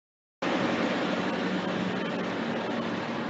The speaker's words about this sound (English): Well, just at that moment, uh, some uh, delivery truck was just passing me by there.